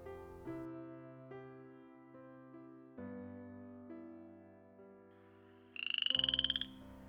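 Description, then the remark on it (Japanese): Soft, steady tones play throughout, then near the end a single loud frog croak sounds as a quick, rattling burst of pulses lasting under a second. “あれ今カエルさんの声が聞こえなかったあまた聞こえたこの辺りにいるはずだどこだろうその木の辺りから聞こえてきた気がするけど”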